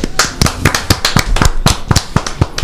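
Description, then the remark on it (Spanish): A short burst of applause: quick, sharp hand claps in an irregular, fairly dense rhythm, loud and crisp, with no voices over it. “Aplausos.”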